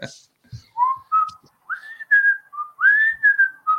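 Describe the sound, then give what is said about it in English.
Someone whistles a short, wandering tune: a run of clear, sliding notes that rise and dip in pitch, fairly loud, with brief gaps between phrases and no talking. “someone yelled at me for whistling, which granted was very annoying on my part.”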